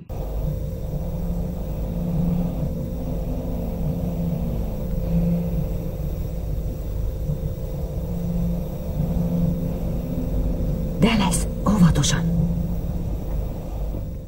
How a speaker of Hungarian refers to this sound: Azt fogjátok hallani, hogy a a Nostromo nevű űrhajóban a, az egészségügyi részlegen hallható.